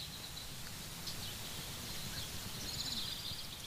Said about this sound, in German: Kleine Vögel fliegen zwitschernd von Baum zu Baum.